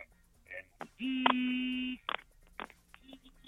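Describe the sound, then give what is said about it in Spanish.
An alarm goes off as one loud, steady electronic buzz lasting about a second, flat in pitch and harsh with overtones, framed by a few short clicks and faint rustling. “perdón, la alarma sonó.”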